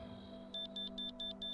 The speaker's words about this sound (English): Crap, that's the alarm for lights out. I gotta log off, but check back here soon.